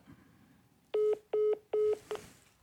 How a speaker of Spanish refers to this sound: Pues mi, celular sí está así, marca.